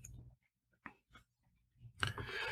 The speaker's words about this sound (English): Okay, I'm taking a sip of unsweetened iced tea now. I don't know the brand name, but whoever they are, they're certainly not a sponsor.